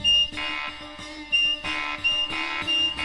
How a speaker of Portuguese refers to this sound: Essa música que estamos ouvindo, escrita como tema de abertura, utiliza instrumentos jamais pensados num arranjo como uma campainha de casa, um apito, campainha. Observem.